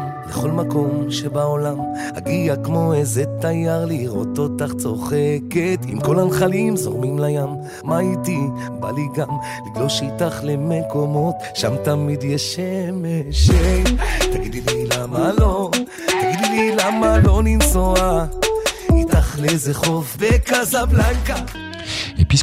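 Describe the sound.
A Mizrahi pop song: an ornamented, wavering lead voice sings over bright keyboard melody, then a pounding beat and deep bass kick in partway through, keeping the music loud and driving.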